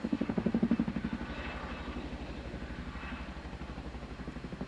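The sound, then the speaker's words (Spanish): A motorcycle engine idles with a steady, rapid chugging pulse, prominent, its rumble slightly heavier at first before settling into an even throb. “te querías ir en la moto y no podías entrar”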